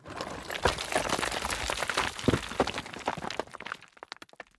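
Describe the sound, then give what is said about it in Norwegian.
A loud crashing impact followed by a dense clatter of breaking, tumbling stone that thins into scattered small cracks and pebble clicks before fading out. “Et voldsomt brak høres gjennom skogen når steintrollet treffer bakken og knuses til tusenvis av småstein.”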